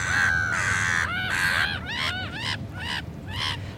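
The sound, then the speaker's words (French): Black-headed gulls calling in Paris in winter, with a couple of drawn-out harsh cries followed by a quick run of shorter, rasping squawks, fairly loud over a steady low background rumble. “Les moitrieuses plus petites ont un bec homogène longiligne et fin, rouge avec une pointe noire.”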